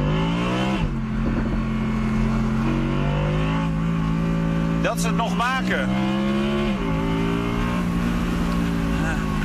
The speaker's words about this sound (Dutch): Ik zit in de Audi R8 V10. Performance RWD. En die RWD staat voor Rear Wheel Drive.